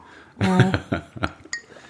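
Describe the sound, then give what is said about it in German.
A handful of light clinks of ice cubes knocking against a glass as someone takes a sip, irregularly spaced, following a brief low vocal sound at the start. “Ich muss mal kurz einen Schluck trinken, man hört immer so die Eiswürfel, nee.”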